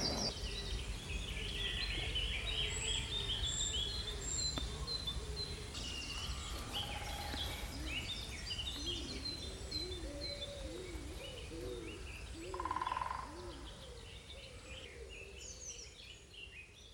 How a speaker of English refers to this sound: So that was the glorious Dawn Chorus, recorded for us by Lucy in her local woodland down in the West Country.